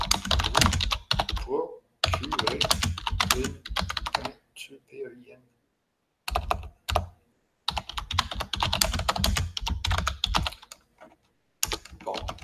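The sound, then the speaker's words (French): Rapid clattering keystrokes on a computer keyboard as someone types a web address into a chat come in several bursts separated by short pauses, loud and busy, with a brief quieter stretch of faint sounds in the middle. “Alors, je vais vous mettre dans le chat l'adresse.”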